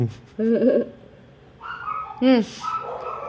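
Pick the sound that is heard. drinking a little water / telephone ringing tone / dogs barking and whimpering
dogs barking and whimpering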